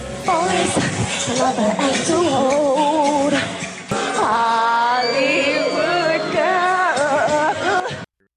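Isolated pop vocals from a live show: a single voice sings loudly and up close with no backing music, wavering sustained notes running continuously with a brief break midway.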